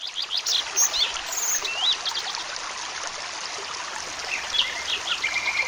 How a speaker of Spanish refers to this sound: Los pájaros ya cantaban cuando Eduardo abrió los ojos.